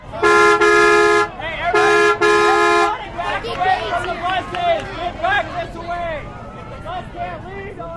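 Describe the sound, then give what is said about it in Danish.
Two long, loud horn blasts sound in quick succession, then a dense crowd takes over, many people packed tightly, without face masks, pushing and shouting over one another in a chaotic jostle as all try to board the same bus at the same time. “Stuet sammen som sild i en tynde, skubbende og råbende af hinanden, i øvrigt uden mundbind, mens alle forsøger at komme ind i den samme bus på samme tid.”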